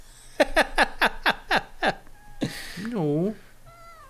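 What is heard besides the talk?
cat meowing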